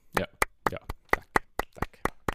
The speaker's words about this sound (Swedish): Så att vi får vara stolta, vi klappar och ger oss själva en liten applåd